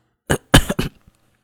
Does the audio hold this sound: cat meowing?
no